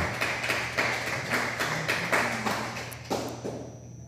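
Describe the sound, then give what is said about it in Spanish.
Steady rhythmic clapping, about a dozen sharp claps at an even pace, like hands applauding in time, over a constant low hum with no voices. “Dele un fuerte aplauso.”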